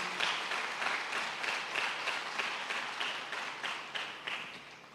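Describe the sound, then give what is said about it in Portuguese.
Sustained applause for Jesus from a church audience, a dense wash of many hands clapping at steady volume for several seconds with no voices over it. “Dê mais um poderoso aplauso para Jesus.”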